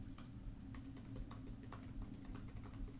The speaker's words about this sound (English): I'm typing that up because I want it to be the title, y'all.